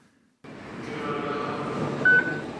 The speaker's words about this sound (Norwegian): Et lite pip, og du har betalt. Men enda er det bare Ruters eia reisekort du kan bruke på denne måten i kortleserne på T-banen, trikken eller bybussen i Oslo-området.